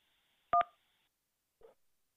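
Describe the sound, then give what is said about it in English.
A short burst of two quick telephone keypad tones, a sharp dual-pitched beep, pressed after a recorded phone menu asks the caller to press one to continue, followed after a pause by a faint, brief muffled click. No one speaks. “Please press one to continue.”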